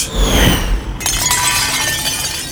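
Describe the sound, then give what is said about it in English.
Macho's dishes shatter in a loud crash, a burst of breaking ceramic and glass followed by a bright spill of clinking, tinkling shards that rings on for a couple of seconds. “Oh no! Those were Macho's dishes!”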